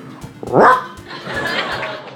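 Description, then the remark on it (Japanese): A person imitates a medium-sized dog with a single loud, gruff bark, followed by a quieter stretch of background murmur and faint laughter. “え、小型犬中型犬えー、あ、じゃあ小型犬あ、小型犬。中型犬中型犬”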